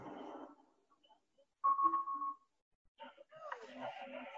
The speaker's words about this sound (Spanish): Ese es el aviso que hace el vehículo al conductor indicando que adelante suyo va a ocurrir un accidente dentro de tres segundos.